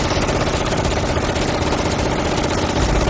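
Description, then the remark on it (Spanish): A dense, continuous roar of battle: rapid gunfire and heavy mortar explosions blur together into a loud, unbroken wall of noise with no pauses and no voices, heard from a landing boat as its ramp is lowered among American soldiers. “¡Esto está lleno de fuego de mortero!”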